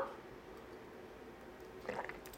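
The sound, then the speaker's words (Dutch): Someone takes a quiet sip of a drink: a soft, brief wet slurp and swallow near the end, after a stretch of faint, low background hum with no talking. “Nou, ik neem nog heel even weer een slokje voordat we naar de leeuw gaan.”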